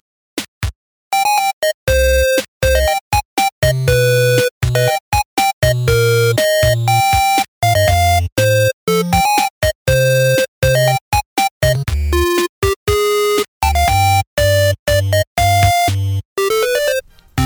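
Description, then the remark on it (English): A loud, bright 8-bit chiptune Game Boy version of the Jago and Lightfoot theme tune, made by Jamie Robertson: buzzy square-wave melody notes over a pulsing bass line, played at a brisk, steady rhythm with no voices. “Oh, Jamie Robinson, who I, I Robertson, who I should mention, did a um, a Game Boy version of the Jago and Lightfoot theme.”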